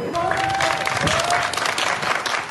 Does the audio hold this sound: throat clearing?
no